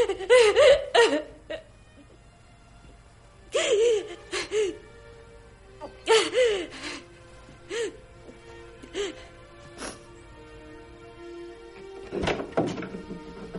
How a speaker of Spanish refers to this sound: El niño se retira mientras Christine permanece en el salón llorando desesperada.